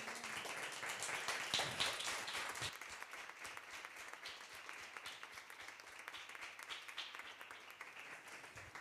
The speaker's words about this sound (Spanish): Vamos a darle un fuerte aplauso a papá.